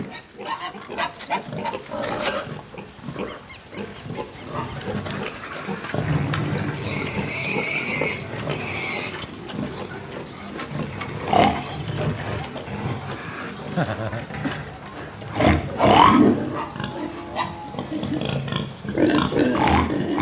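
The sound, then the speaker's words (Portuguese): Pigs grunt and oink continuously, with irregular rough snorts and a few higher squeals rising over a steady, noisy farmyard background. “Agora, como é que um diretor convence um ator a contracenar com diálogos com porcos?”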